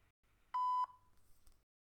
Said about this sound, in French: tu peux me laisser un message après le bip sonore qui va suivre, merci.